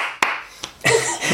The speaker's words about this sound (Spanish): verdad, un aplauso para las pilas de la grabadora.